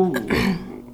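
A brief murmur of indistinct voices, like people chatting in the background of a cafe, at moderate loudness and fading slightly toward the end.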